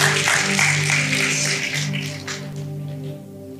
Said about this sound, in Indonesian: Berikan tepuk tangan yang paling meriah buat Tuhan Yesus Kristus.